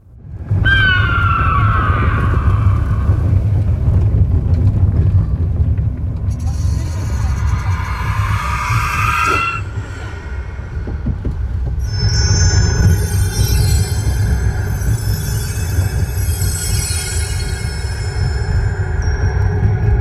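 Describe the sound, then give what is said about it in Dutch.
Sound effects of the Vogelrok roller coaster ride without music, played from a phone: a constant heavy low rumble of the ride rolling along a track, with rising metallic squeals and whines and a shrill high-pitched screech building near the end, loud. “Dus eh, iedereen die de geluidseffecten van Vogelrok los wil horen, hier komen ze.”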